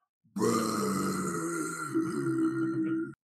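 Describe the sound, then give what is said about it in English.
A long, loud, mighty belch lasting nearly three seconds, deep and rumbling with a rough, throaty texture, likely voiced by a person imitating the sound, with no talking over it. “And then he unleashes his signature attack and he lets out just this mighty”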